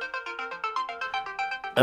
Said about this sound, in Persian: بذار جواب این تلفن رو بدم بعد